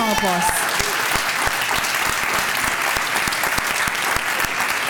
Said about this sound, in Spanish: Entonces sí Jesús, déle ese fuerte aplauso.